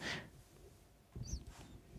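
A dog snorts faintly, with a short breathy puff at the start followed by a rougher burst of snuffling snorts a moment later, with no talking.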